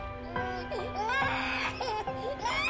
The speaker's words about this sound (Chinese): 房里的深处传来婴儿声，此刻的我才留意到，房间门牌上写着。六零二号房，婴儿的哭声越来越大声